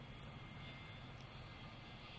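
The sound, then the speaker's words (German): An airplane drones overhead, flying out over the sea toward America, a steady low rumble with a broad rushing hiss that holds evenly throughout, fairly faint, with no voices. “Ich schaue den Flugzeugen nach, die nach Amerika hinüber über das Meer fliegen.”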